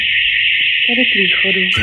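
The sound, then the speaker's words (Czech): A loud, steady high-pitched alarm rings continuously without a break inside a closed, dark shopping mall, and partway through a person starts talking over it. “Tak jdu k tomu alarmu.”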